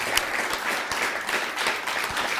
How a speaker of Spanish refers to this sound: Dele un fuerte aplauso al bendito sea.